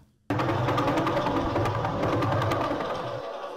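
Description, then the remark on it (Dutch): A dense, steady stream of rapid rhythmic pulses, like a fast mechanical throbbing, starts abruptly and continues loud and unbroken, a pulsar signal converted into sound, played from YouTube, with no voices. “Pulsar Sounds. En dan gaat hij dit afspelen zo.”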